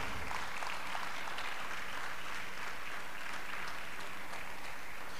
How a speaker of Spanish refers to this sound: Podemos aplaudir al Señor tantito o muchito.